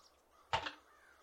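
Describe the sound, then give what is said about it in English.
A single harsh, raspy raven caw rings out briefly, standing alone against a quiet, faintly murmuring background with no one speaking. “Which she has something to do with all the ravens that we hear.”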